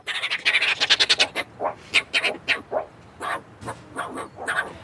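A dominant meerkat, the highest-ranking animal, lets out a rapid, irregular string of harsh, raspy scolding calls, loud, barking and chattering in quick bursts as it chases all the other meerkats away, with no one talking.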